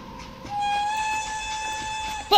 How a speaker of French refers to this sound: Alors, ah, ça y est, ouf. Il est temps d'atterrir, j'entends que le train raboule enfin.